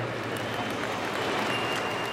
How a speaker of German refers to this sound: Die Menge klatscht und jubelt beim Anblick des Jets, der Amerikas führenden Flugzeughersteller neues Leben einhaucht.